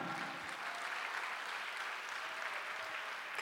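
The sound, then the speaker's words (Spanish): A church audience applauding the Lord steadily, a dense wash of many hands clapping at once that holds at an even level throughout, with no voices standing out. “Denle un aplauso al Señor, amado hermano.”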